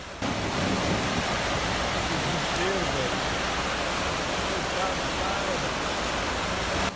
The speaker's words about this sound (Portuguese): A tempestade transformou o pequeno riacho numa enorme cachoeira. Gente do céu, olha o que virou aqui o, o corvo aqui do Goiânia Viva. A água arrastou carros e motos.